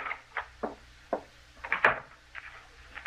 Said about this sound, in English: He's locking the door again. He's locking us in.